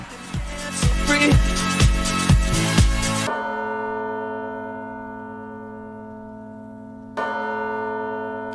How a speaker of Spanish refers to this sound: Campanas en la noche. No, no son campanas en la noche, pero son campanas.